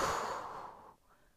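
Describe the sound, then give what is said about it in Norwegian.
A single long, breathy exhale during a guided breathing exercise, airy and hissing at first, then tapering off into near silence after about a second. No one speaks. “Og pust ut.”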